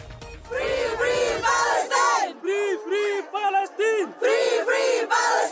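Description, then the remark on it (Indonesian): A large crowd chants loudly in unison at a pro-Palestinian demonstration in Indonesia, rhythmic shouted phrases repeating in steady bursts with brief pauses between them, sounding energetic. “sejumlah kota di Indonesia diguncang demonstrasi pro-Palestina sejak serangan Hamas ke Israel tanggal 7 Oktober lalu.”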